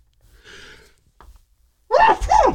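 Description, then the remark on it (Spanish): A single loud sneeze bursts out near the end, preceded by a soft breathy intake and a brief pause; no talking. “Salud.”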